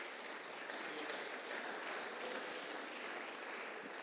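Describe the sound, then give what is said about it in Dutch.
Steady applause from an audience as the chair of the PO-raad is called forward to the podium, a dense wash of many hands clapping at once, even in volume with no voices standing out. “Applaus jongens.”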